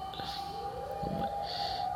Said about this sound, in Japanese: え、待って、サイレンすごいなってるわ、こんな時間に。うるさいですね。すいません。